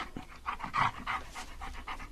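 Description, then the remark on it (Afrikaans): A dog pants in quick, steady breaths while being spoiled by its owner, a rhythmic series of raspy huffs that continues throughout with no talking over it. “Is jy nou weer besig om die hond te bederf? Twee honde beskikkies is beswaarlik bederf”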